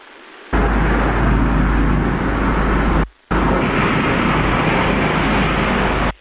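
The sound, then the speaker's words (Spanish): A helicopter outside the window roars, a loud, steady wash of rotor and engine noise that cuts out abruptly for a moment midway before resuming at full strength. “Perdón, entre la entre tu entre tu carretera y un y un helicóptero que estaba aquí en en la en la ventana fue fue un poquito complicado,”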